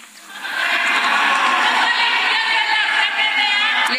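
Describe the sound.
Many voices shout and clamor at once in the Senate, the upper house of a legislature, a dense, sustained roar of overlapping yelling that swells in the first half-second and stays loud throughout.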